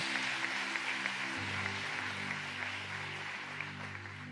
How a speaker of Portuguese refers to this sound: Aleluia, pode aplaudir a Ele. Glória a Deus.